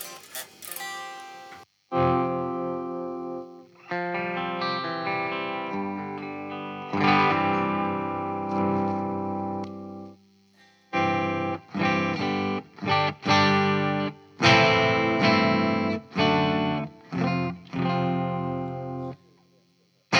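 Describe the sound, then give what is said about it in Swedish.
An electric guitar played through an amp with moderate gain set at about two o'clock, on old strings, ringing chords and sustained notes with slight grit, then bursts of short strummed stabs separated by brief pauses. “ja, vi ställer, nu ställer vi gainen klockan eh, två då, ungefär.”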